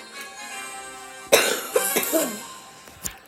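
A burst of harsh, raspy coughing from someone who is sick starts abruptly and runs in several rapid, rough bursts for over a second, followed by a sharp final cough, with a soft hum of background music beneath.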